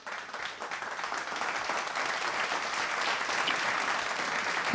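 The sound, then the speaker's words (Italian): Steady applause from a crowd, a dense crackle of many hands clapping at once that holds a fairly even level for the whole stretch, with no voices over it. “con un bel applauso andrei ad introdurre Andrea da Roma”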